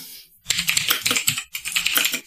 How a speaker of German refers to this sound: Ich höre es schon, im Hintergrund der, geht die Schreibmaschine an. Klick, klick, klick, klick, klick, klick.